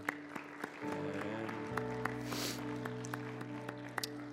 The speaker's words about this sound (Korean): 우리 어느 자리에서 그 어느 누군가가 예수님을 영접하심을 우리 감사하며 우리 하나님 앞에 영광의 박수 올려드립니다.